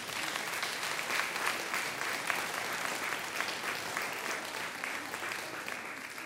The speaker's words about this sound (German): Okay, während wir noch suchen, dürfen wir alle, es geht ja heute um Wertschätzung, einmal klatschen für die Kinder, dass sie so toll gebastelt haben.